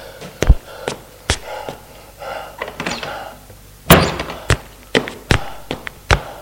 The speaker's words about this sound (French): Il Arrive à la maison de ses parents tout essoufflé. Il ouvre la porte.